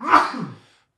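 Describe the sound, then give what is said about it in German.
A single abrupt sneeze bursts out with a sharp, breathy onset, then trails off quickly into silence. No one speaks. “Gesundheit. Entschuldigung.”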